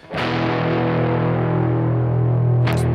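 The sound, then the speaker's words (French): A thick, distorted electric guitar chord, played through an ME80 effects unit, rings out loud and sustained, washed in heavy reverb, with a brief pick attack near the end; no one speaks. “Mais donc j'ai cette, distorsion là qui, avec beaucoup de reverb, donne un son assez épais et complexe.”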